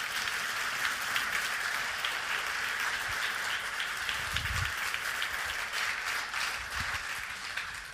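A room full of people applauds steadily, a dense patter of many hands clapping at once that holds at an even, fairly loud level for several seconds, with a few low thumps underneath.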